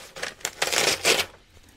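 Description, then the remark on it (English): A brand new sheet of paper is ripped from a spiral notebook in a few quick, crackly bursts, fairly loud, with no talking. “getting this sheet of paper from this spiral.”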